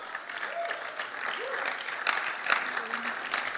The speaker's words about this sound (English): There's like a 40% golf clap.